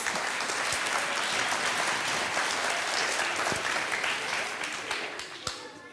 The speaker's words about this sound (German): Also jetzt bedanke ich mich erstmal bei unseren Bretthaltern. Vielen Dank. Kriegt bestimmt noch einen Applaus.